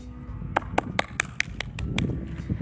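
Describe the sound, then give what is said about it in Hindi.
A single person claps their hands about eight times in a steady, fairly quick rhythm. The sharp, bright slaps stand out over a low background rumble, and no one speaks. “देखिए मैंने तो ताली बजा लिया अब आप सब भी तालियां बजा लीजिए”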